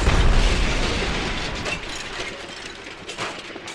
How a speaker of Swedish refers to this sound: du hör ifrån det lilla hörn som du är fastspärrad i hur taket och omgivningen börjar braka ned omkring dig. Du hör det och det verkar som om omgivningen överallt omkring dig börjar ge vika